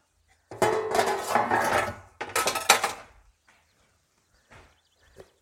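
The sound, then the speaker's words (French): Dishes and cutlery clatter in a sink for a few seconds as someone does the small washing-up and clears the worktop while a frying pan heats: a busy burst of clinking and rattling, then a pause and a couple of soft, faint knocks. “On peut ranger nos épluchures, on peut faire la petite vaisselle, passer un petit coup de propre.”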